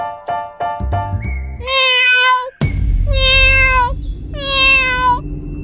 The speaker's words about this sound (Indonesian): Terdengar suara kucing.